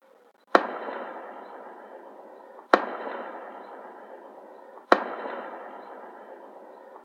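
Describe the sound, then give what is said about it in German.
Three loud ceremonial mortar shots boom out at steady intervals of about two seconds, each a sharp blast followed by a long rolling echo that fades before the next. “Marion, drei Böllerschüsse.”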